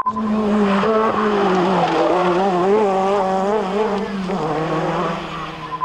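A Renault R5 Maxi Turbo rally car driven by Jean Ragnotti races past at speed at the 1985 Tour de Corse, its engine roaring loud with a rising and falling pitch as it shifts gears, the note dropping briefly before climbing again. No one speaks.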